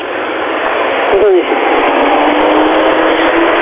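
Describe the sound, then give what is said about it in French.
A car whooshes past once, a brief swell that quickly fades, heard through a steady hiss like a phone or radio line. No one speaks. “la voiture passe, la voiture est passée.”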